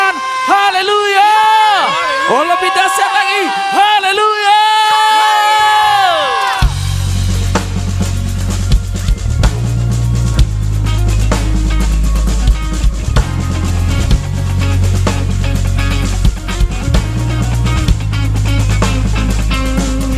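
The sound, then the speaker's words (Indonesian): A crowd claps and cheers loudly for God over a band with heavy, pulsing bass, following a few seconds of a wavering, sustained voice or tone alone. “sekali lagi tepuk tangan yang dahsyat bagi Tuhan. Dan sorak”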